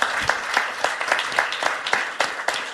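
A crowd applauds in a steady, dense wash of clapping, with sharper individual claps popping out at irregular moments over nearly three seconds and no voices.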